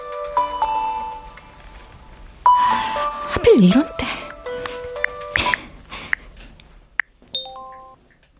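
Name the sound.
phone ringing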